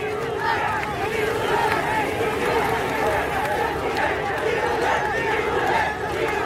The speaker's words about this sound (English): Then last weekend, people started taking to the streets to protest against the coup in cities all across Myanmar, including the biggest city Yangon and the capital Naypyidaw.